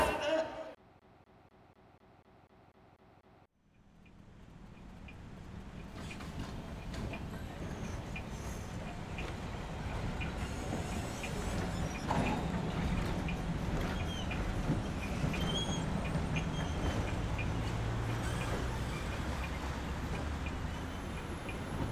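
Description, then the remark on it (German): After a brief tonal opening, a busy city street in Vienna, at Johann Nepomuk Berger Platz opposite the Ottakringer brewery, fills in: trams rumbling and rattling past amid steady noise of passing cars, loud, with faint indistinct voices in the mix. “während die Straßenbahnen vorbeirattern und die Autos vorbeirauschen.”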